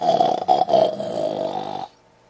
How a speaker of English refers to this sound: Then she fell off into a deep sleep, snoring and all.